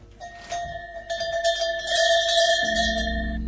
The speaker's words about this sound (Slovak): Tuto vidíme, to je tie prekone, hrkalky, krogulce, rolničky, všade to ináč volajú. Toto je pre ovečky.